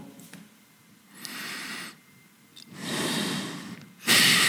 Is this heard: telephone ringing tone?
no